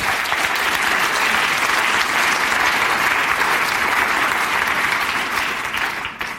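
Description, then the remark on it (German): Steady applause from a group at a baptism, for a person confessing faith in Jesus, dense clapping at an even loudness that holds for several seconds before tapering slightly at the end. No one speaks over it. “Ich gebe dir doch auch einen Applaus”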